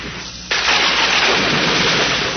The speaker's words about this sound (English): With an ear splitting crash, a jagged fork of lightning crackled out of the clouds and hit the tip of the mast. It was followed by another. And another.